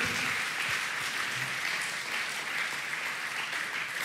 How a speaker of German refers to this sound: Lass uns dem Aufbauteam nochmal einen riesen Applaus geben. Come on! Sehr cool!